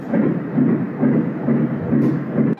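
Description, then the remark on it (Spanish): A fetal heartbeat of a baby with Haitian roots, later born in Monterrey: a fast, steady pulse of soft whooshing thumps, roughly two or more per second, over a constant hissing background, with no voices. “Son los latidos de un pequeño corazón nativo de una isla caribeña.”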